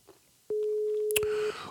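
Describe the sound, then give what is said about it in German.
A single steady telephone ringing tone sounds for about one second, clear, as if heard down the line, with a short click partway through and quiet background noise around it; a surprise call being placed to basketball player Basti Doret of Medi Bayreuth. “Überraschungsanruf machen wir nur für Basti.”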